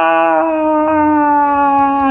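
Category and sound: animal, dog howling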